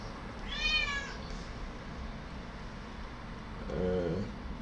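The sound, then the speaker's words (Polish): A cat meows twice, a higher-pitched cry near the start and a lower, shorter one near the end, over a steady low rumble of background noise. “Kita cicho.”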